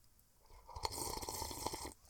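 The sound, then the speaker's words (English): A wet sip and swallow of an award-winning international-style lager beer from Savannah, Georgia, a slurping rush of about a second with small mouth clicks, heard alone in an otherwise quiet moment. “it's just silence while we're drinking. They can hear our joy.”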